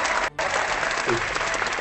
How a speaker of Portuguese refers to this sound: Gostei das palmas.